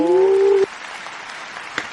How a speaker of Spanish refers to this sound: Fuerte el aplauso.